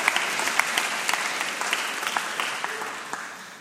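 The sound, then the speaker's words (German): An audience claps steadily, giving applause for what Jesus does; many hands make a dense, even patter of applause that holds for several seconds and slowly softens toward the end, with no talking over it. “dann lass uns einen Applaus geben für das, was Jesus tut.”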